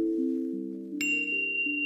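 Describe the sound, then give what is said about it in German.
A short musical jingle of smooth, sustained tones stepping between a few pitches, joined halfway through by one bright, bell-like chime that rings on until the end. No voices. “Doch bevor es mit seiner Geschichte losgeht, dieser Jingle, den ich in jeder Folge abspiele.”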